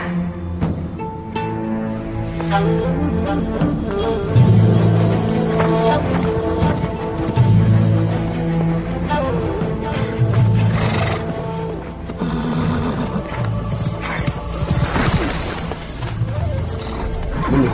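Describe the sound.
A horse whinnies several times in loud, shrill, wavering bursts while hooves clop steadily underneath, the whole scene busy and continuous with voices occasionally mixed in.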